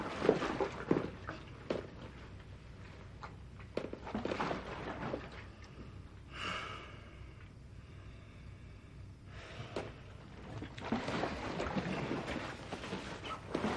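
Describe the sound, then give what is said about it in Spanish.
A water mattress on a bed sloshes and wobbles as someone sits down on it, in irregular surges of swishing water, rising and fading over several seconds with a brief creaky, squeaking stretch in the middle; no one speaks. “Se sienta y se sorprende ante las oscilaciones del colchón de agua.”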